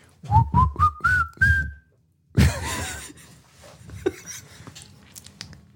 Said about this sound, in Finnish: Tämä on niin vaikea tämä alku tähän, kun mä haluaisin, mä haluaisin viheltää tämän.